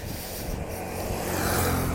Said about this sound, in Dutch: Oh, er komt even een scooter langs. Dat mag je trouwens helemaal niet.